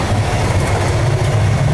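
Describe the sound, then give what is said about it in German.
A steady, loud rumble of an Interregio train made up mostly of old first-class carriages, heard from inside a passenger carriage, with a constant low drone and a faint rattling hiss above it, no voices. “Dieser Zug scheint ja überwiegend auf diesen alten Erste-Klasse-Wagen zu bestehen.”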